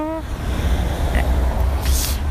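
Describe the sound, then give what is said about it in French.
A heavy truck rumbles past on the street, its loud low engine drone filling the moment, with a brief hiss of air brakes near the end. “Encore un camion.”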